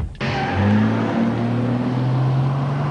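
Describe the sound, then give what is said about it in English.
The sporty engine of a Vauxhall Corsa Sport car roars to life and revs hard, its rising tone climbing and holding loud, with no talking over it. “More like time to test this sporty engine.”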